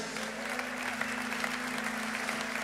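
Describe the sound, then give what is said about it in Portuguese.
An audience claps for Jesus, steadily and together, in a dense, continuous wash of applause at an even level, with a low steady hum running underneath throughout. “Aleluia, aplauda Jesus.”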